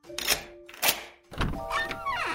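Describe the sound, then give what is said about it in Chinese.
The door of a house in a forest clicks open after a knock: a few dull, solid clunks from the latch, then a short creaking squeak with a wavering pitch. No one speaks. “没过多久，听到咔嚓一声，门打开了。”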